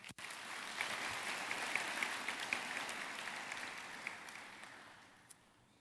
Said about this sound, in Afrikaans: Kom ons gee hulle lekker hande klap.